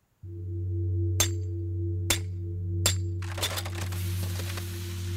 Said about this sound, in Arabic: هذا صوت أنبوب إمداد الحليب بإحدى المزارع الأمريكية وقد كسر عمدا كي تنصرف كميات الحليب الطازج إلى مصارف النفايات بينما وقف العامل يراقب انتهاء العملية بملامح جامدة